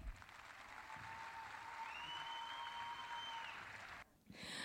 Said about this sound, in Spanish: Aplausos para ….